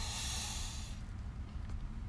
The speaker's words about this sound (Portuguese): Agora a gente vai se preparar para fazer três respirações profundas.